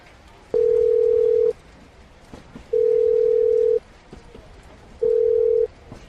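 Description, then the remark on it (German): A telephone tone sounds while a call is placed: three steady, mid-pitched beeps, each about a second long, separated by short silent pauses, clear with no voices. “Ich muss noch kurz einen Anruf machen.”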